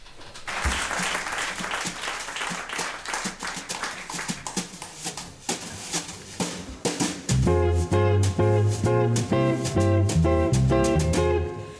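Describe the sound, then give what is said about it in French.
Lively applause fills the first seven seconds, then a French chanson about undocumented migrants (sans-papiers) starts up with loud, steady pitched accompaniment and strong low notes carrying through to the end. “Oh, on va écouter une petite chanson sur les, sans-papiers.”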